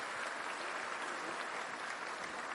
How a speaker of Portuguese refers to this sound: Você pode louvar a Deus com palmas, com alegria. Louvado seja Deus.